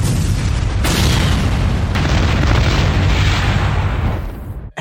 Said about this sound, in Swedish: vi kommer inte ha så mycket explosioner här, så Fredrik, lägg in det nu så har vi det klart